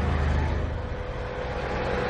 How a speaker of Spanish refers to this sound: La carretera 163 es la entrada a la cuenca del Amazonas. Por ella llegaron a la selva los madereros, el dinero y la destrucción. Hoy esta carretera está llena de camiones que transportan su valiosa mercancía a los puertos internacionales